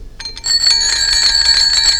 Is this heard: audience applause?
no